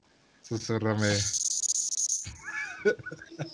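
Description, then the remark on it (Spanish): A person imitates a hissing rattlesnake, speaking Parseltongue as in Harry Potter: a voiced sound slides into a long, sustained hiss lasting over a second, then trails off into softer breathy murmurs and clicks. “Eso suena como a víbora de cascabel.”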